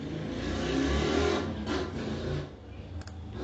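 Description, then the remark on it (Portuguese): A motorcycle engine starts up, rumbles steadily and revs a little, a loud, low, continuous drone that holds for a few seconds before easing slightly, with no voices over it. “Ó, a motona pegando.”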